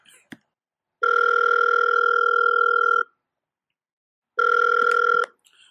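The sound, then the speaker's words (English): A telephone ringing tone sounds twice as long, steady electronic buzzes while calling Scott Perry of the Knicks, the first about two seconds, then a pause before a shorter second ring, with a faint click at the start. “I'm gonna call you back. The Knicks calling.”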